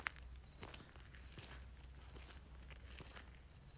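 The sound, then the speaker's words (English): Steady footsteps crunch along a forest trail at a walking pace, moderately loud, with a faint continuous hum of insects, believed to be crickets, in the background. “I'm walking now into a trail of the forest that I've never walked in before.”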